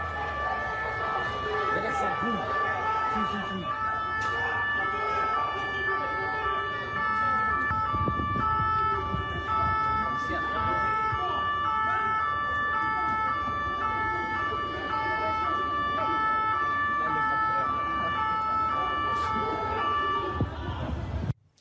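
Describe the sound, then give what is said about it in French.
Loud police sirens wail continuously for about twenty seconds over rumbling engine and road noise during a police pursuit in which officers stop a car by ramming it, with muffled voices occasionally audible beneath the din. “des images impressionnantes de vos collègues qui arrêtent une voiture en la, tamponnant.”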